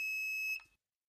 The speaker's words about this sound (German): da ist es doch, da ist es ein Piep heißt das Ding sogar. Das habe ich sogar so genannt. Sondern versuche ich das mehr einzubauen. Also, das kann ja nicht sein, dass wir ohne dieses Geräusch hier leben müssen. Klick und da ist es. Ich spiel's mal ein.